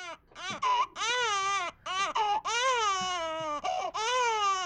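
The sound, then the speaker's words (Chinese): A baby boy, a few months old, cries loudly and steadily at a massage place in long, high wailing bursts separated by brief gasping pauses, the pitch wavering up and down through each cry. “我儿子当时闹起来，就是一直在哭。”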